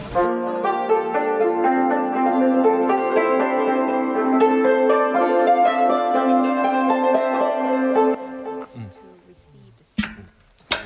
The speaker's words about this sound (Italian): il suono che sentite è, una- è un macchinario infernale che sta testando il suono in una camera necoica.